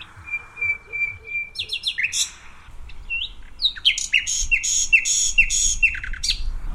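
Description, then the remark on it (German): A nightingale's song plays from a researcher's phone held toward a roughly 100-metre-wide green strip of dense bushes between a road and a residential area, in a nightingale territory: a steady repeated piping note, then rapid varied chirps, trills and whistles in quick bursts, moderately loud over faint outdoor background hum. “Und wir versuchen jetzt mit einem ganz kleinen Playback rauszufinden, ob die Nachtigall gerade hier mit uns singen will.”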